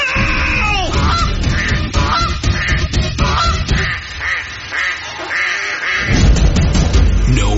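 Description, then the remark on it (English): A noisy flock of geese and ducks honks and quacks over each other in rapid, overlapping bursts, loud, with a dense chorus of calls filling the whole stretch. “And now they're coming after us. At the quack of dawn.”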